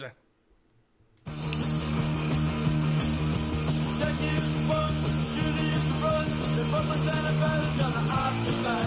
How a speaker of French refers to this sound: ce que vous entendez, c'est … sur un démo de